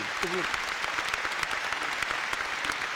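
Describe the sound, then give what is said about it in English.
Steady audience applause welcoming a guest fills the whole stretch, a dense wash of clapping hands with a brief voice rising over it near the start. “Round of applause, man.”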